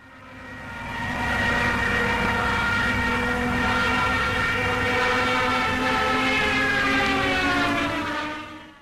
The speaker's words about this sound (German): Genau, das ist die mhm. sogenannte Jericho-Trompete. Und das ist eine Sirene, die man bis Mitte des Zweiten Weltkriegs an den Fahrwerksbeinen der deutschen Sturzkampfflugzeuge